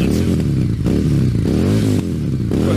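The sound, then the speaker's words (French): A loud Harley-Davidson motorcycle engine revs repeatedly while stopped, its deep rumbling pitch surging up and dropping back in several throttle blips, with no voices over it. “il est-tu obligé de craquer sa, moto de même là, quand il est arrêté?”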